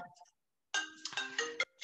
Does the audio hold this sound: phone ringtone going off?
yes